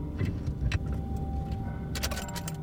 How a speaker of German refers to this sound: Er fuhr vom Highway ab, fand einen holprigen Weg, an dem er seinen Wagen hinter einem Baumstreifen parkte.